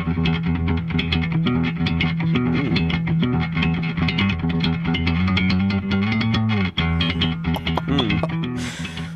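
A loud, driving heavy metal chorus with distorted guitars and a punchy bass whose picked notes have a sharp, clicky attack, playing steadily throughout with no talking over it.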